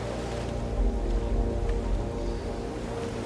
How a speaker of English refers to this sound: The salty air fills you with a sense of vigor, while the calm sound of the distant crashing waves brings you feelings of serenity.